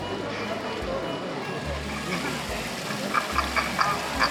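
The water fountain in front of the Spanish Steps in Rome splashes in a steady, even rush of sound, with a low hum underneath and a few faint, short quacking calls near the end.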